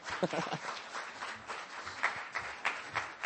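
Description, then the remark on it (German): A burst of audience applause, many hands clapping in a dense, steady patter with a few sharper claps standing out, moderately loud and lasting a few seconds. “Gib dir auch einen Applaus.”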